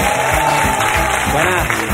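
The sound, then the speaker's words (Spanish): An audience breaks into sustained applause for a word-game participant from Mogán in Gran Canaria, a dense, steady wash of many hands clapping at once that stays loud for the whole two seconds, with a murmur of crowd voices mixed in. “un aplauso para él.”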